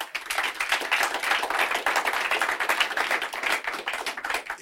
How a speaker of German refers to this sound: Hast ja auch deinen Applaus bekommen. Hast du dir auch verdient, finde ich, heute an dem Tag.